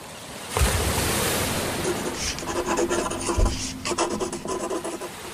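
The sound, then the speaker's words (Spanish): Surf on the island of Guernsey washes in a broad, steady hiss, with a heavier wave surge near the start and another midway, plus scratchy rasping textures layered over the continuous roar of the sea. “Al igual que Víctor Hugo, también nosotros podemos cerrar los ojos, escuchar y recrear el paisaje sonoro de la isla de Guernsey que escucharon los oídos del escritor francés.”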